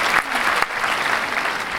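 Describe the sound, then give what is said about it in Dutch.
Steady, dense applause from a group clapping continuously for a Scottish band, fairly loud, with no speech over it. “Oh, mag, mag een applaus bij jongens.”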